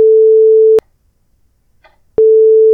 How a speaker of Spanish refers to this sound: Ahí va a ir un bip, obviamente.